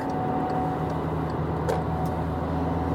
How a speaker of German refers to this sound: jetzt haben sie mich hier gerade hinterm LKW ausgebremst, weil ich nicht richtig aufgepasst habe und nicht frech genug war, um rauszufahren. Aber das mache ich jetzt gleich mal. Zack.